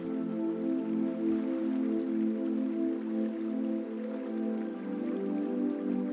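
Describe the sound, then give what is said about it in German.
Steady flowing river water runs continuously beneath a warm, sustained tonal drone, with a soft even wash and no voices throughout. “Lausche dem Klang des Wassers und tanke deine Energie auf.”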